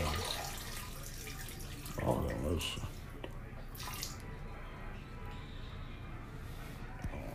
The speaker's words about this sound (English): Sorry, y'all. That's still water flowing.